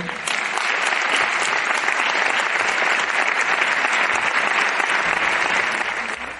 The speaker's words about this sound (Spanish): Y por eso no me voy a extender más, le voy a pedir que, entre, a, que suba a la mesa, que va a estar en la mesa, con un fuerte aplauso para